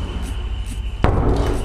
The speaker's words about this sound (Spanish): Aquí está la puerta. Vamos a cerrar la puerta de mi cuarto. Estoy afuera.